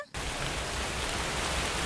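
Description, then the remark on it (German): Steady rain begins abruptly after a brief quiet moment, a dense, even hiss of falling drops that stays fairly loud with no voices over it. “Oder er hätte können einem Regen gebieten”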